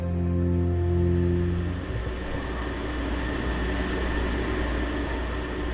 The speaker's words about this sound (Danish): Det her er lyden af turen til Samsø. Jeg står på dækket af færgen Prinsesse Isabella, og det er et sted, jeg har stået mange gange før.